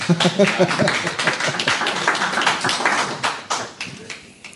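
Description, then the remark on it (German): A burst of applause: many hands clapping in dense, uneven rapid patter, loud at first and gradually thinning out toward the end, with a brief voice near the start. “Ich weiß jetzt auch, was ich tun muss für Applaus, glaube ich.”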